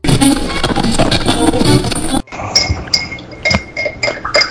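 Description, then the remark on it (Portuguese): A spoon clinks against a glass while stirring a Nescau chocolate drink: dense clattering at first, then a quick irregular series of bright ringing clinks, with no voices. “Opa, todinho tá pronto.”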